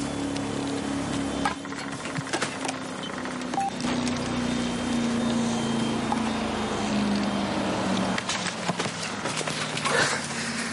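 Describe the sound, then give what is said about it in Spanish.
A Guardia Civil patrol motorboat appears in the distance, its engine droning steadily for the whole stretch, a low humming tone that slowly sinks in pitch over a rough, noisy wash, with a few brief clicks and knocks and no talking. “A lo lejos aparece una lancha motora.”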